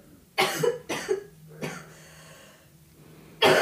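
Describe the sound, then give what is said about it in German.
A sick girl lying on a sofa coughs in a series of harsh bursts: three quick coughs, a raspy throat-clearing rumble trailing off, then one more sharp cough at the end. No talking. “Huste mal, huste mal richtig ab.”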